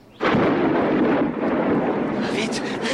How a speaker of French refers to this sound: c'est un orage magnétique.